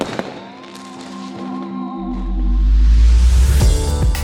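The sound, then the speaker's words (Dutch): Fireworks go off: a sharp pop, then wavering whistles as rockets climb, followed by a swelling low boom and crackling bursts. Loud, with no voices. “En gemeentes gaan bijvoorbeeld ook over of je vuurwerk mag afsteken met oud en nieuw.”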